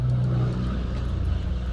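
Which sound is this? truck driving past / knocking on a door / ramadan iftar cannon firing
truck driving past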